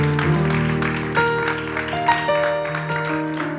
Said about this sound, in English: Can we just give the Lord another hand clap of praise?